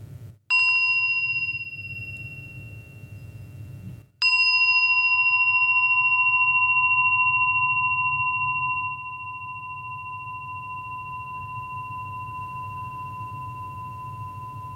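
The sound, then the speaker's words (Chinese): A mindfulness bell rings twice, each strike a bright metallic ding with a clear high tone that hangs and slowly fades into a long, steady resonance. A low hum continues underneath. “放松身体的紧张，让我们来听一下钟声。”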